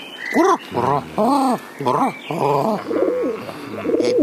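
A pigeon coos in a run of low, throaty, rolling calls, each a rising-and-falling burble, repeated steadily for several seconds with no one speaking.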